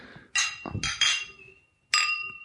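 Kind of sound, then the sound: household object, wine glasses clinking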